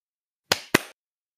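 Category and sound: human body sound, hand clap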